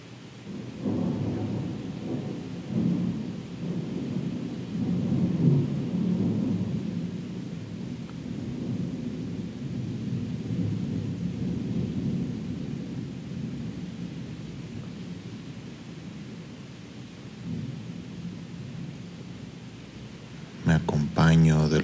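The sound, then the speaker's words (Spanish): Steady rain falls continuously, with a deep rumbling undertone like thunder, and a brief louder burst of rain near the end. “sonidos de la lluvia”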